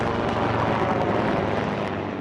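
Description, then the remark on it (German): A loud, steady roar of a US Marines military helicopter passing overhead above the E6 road in northern Norway during the allied Cold Response military exercise, a broad rumbling wash of engine and rotor noise that holds constant throughout, with no voices. “Auf dieser Straße E6 treffen sich schwedische Stridswagenpanzer, italienische Infanterie und die Hubschrauber der US Marines.”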